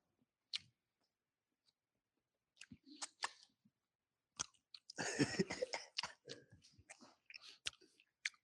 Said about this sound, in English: This is a five, y'all. He grounded up his own beef. Y'all better get with Moose Burgers. Listen, I'm gonna stop smacking right now because woo, sheesh.